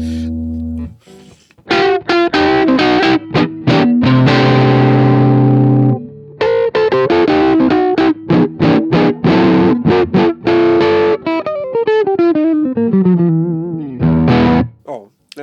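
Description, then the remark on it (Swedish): A distorted electric guitar played through an amp simulator plays loud, choppy chords and riffs, holds a ringing chord for a couple of seconds, then ends in a bending lead phrase. There is no talking over it. “Och den där gitarren har också blivit, den blev så otroligt bra sen jag du justerade den. Jag gillar ju P90.”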